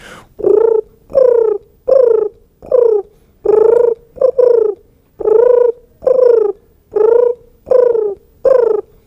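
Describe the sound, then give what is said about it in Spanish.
At an ornithology fair for birdwatchers, a voice imitates the cooing of a European turtle dove: about eleven loud, mid-pitched purring coos in a steady rhythm, each under a second long, with no other talk. “Por ejemplo, la tórtola común arrullaría así”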